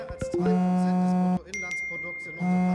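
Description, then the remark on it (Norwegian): Urgent news alerts from various news media arrive on German mobile phones, announcing Germany's 100 billion euro special fund: a quick flurry of bright electronic chimes and pings, several short alert tones overlapping in a busy sequence, some sustained and ringing, with a voice murmuring faintly beneath. “På tyske mobiltelefoner tikker hastemeldingene inn fra diverse nyhetsmedier.”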